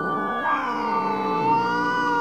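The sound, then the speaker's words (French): A cat, Romuald, yowls after being tried with a dream machine, one long, agitated, wavering cry lasting a couple of seconds, loud, its pitch bending up and down with a strained, harmonic-rich tone. “C'est vrai que pour a fait essayer le rêveur à Romuald pour voir si les chats étaient sensibles aux machines à rêve. Manifestement, ça les rend fous.”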